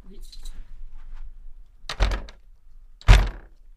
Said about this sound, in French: La porte est bleue et l'intérieur est plutôt noir. Je referme la porte